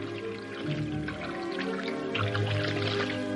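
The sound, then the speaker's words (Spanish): A steady stream of water from an old fountain splashes and gurgles over hands as a woman's hand is held under the jet, with small drips and wet squishing sounds running continuously at a moderate level, no voices. “Toma la mano de ella bajo el chorro de agua.”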